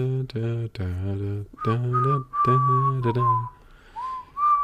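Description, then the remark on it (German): Someone whistles a short classical melody, clear sustained notes rising and falling in a steady tune, with a low hummed or voiced tone under the first part. “Ich pfeife das dann oft.”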